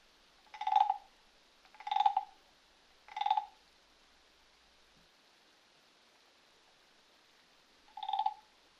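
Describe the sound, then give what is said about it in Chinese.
Frogs croaking: three short, bright calls spaced about a second apart, a long quiet pause, then a fourth croak. No voices, only a faint hiss behind them. “你继续的数着，数着你听到的青蛙叫声。”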